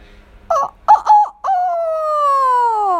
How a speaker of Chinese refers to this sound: 又恢复清亮的嗓音了，你也变成公鸡了，这样就可以叫大家起床喽。